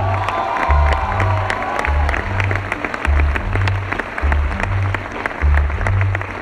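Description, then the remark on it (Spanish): An audience applauds steadily for several seconds for the musical director, dense clapping with a few scattered cheers, while low rhythmic musical notes pulse underneath. “Lo que sí quiero es pedir un fuerte aplauso para el director musical,”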